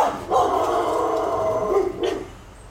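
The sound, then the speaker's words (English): A dog barks, one drawn-out, strained bark followed by a second shorter one, loud and clear with no one talking. “are you even barking at?”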